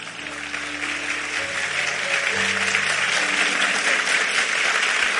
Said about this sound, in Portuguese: Catuca alguém e fala assim, irmão, vai lá, diga para ele aí, vai lá, aplauda ele forte aí.